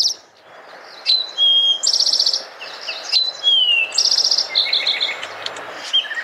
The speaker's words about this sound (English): oh, bird CD.